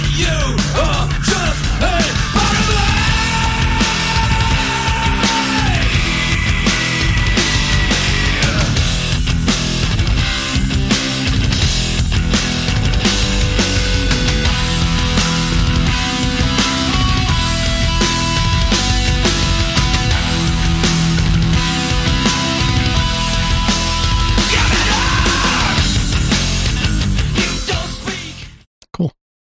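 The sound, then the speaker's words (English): A thrash metal track from a band's EP plays loud and dense from start to finish, with distorted guitars, pounding drums and screamed vocals, before cutting off abruptly at the end. “Now, that's a very thrash sounding track.”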